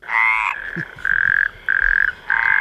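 A toad croaks in four loud, buzzing trills, each lasting about half a second with short gaps between, and no voices can be heard.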